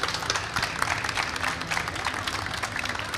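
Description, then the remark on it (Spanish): An audience applauds the speakers at the end of a series of recorded talks, a dense, steady patter of many hands clapping at once that holds at an even, moderate level for a few seconds without any voices on top. “Podéis aplaudir.”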